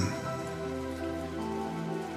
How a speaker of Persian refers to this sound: باران ببار ببار و خیابانها را غرق کن بر سر این چهار راه در انتظار نوحی باران ببار و تنگ حوصلگی مکن